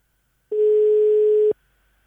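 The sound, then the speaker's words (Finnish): A single steady telephone ringing tone, heard while calling a listener during a live radio broadcast, the line not busy, sounds for about one second, a clear, fairly loud pure beep over faint line hiss, then cuts off abruptly to near silence. “ainakin lupaavasti linja, linja ainakin ei ole varattuna.”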